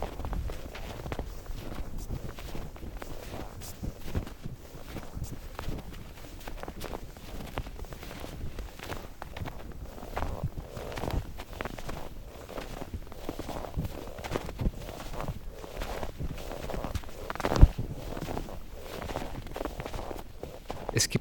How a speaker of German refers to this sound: Geräusche, die mit den Jahreszeiten wiederkehren und die den Zyklus der Natur hörbar machen. Schritte im Schnee gehören da auf jeden Fall dazu. Ein sattes Knirschen im Gehrhythmus.